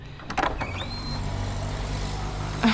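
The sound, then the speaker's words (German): A car engine rumbles steadily with a low, continuous hum as it pulls up on a large street in central Leipzig, while brief mechanical clicks and whooshes of street traffic break through at the start and end. “Und sehe dieses Auto anfahren.”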